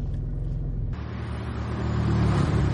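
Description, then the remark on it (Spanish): A car engine idles, then shifts into first gear and pulls away, the engine note rising and growing louder as the car accelerates. No one speaks. “Mete primera y arrancan.”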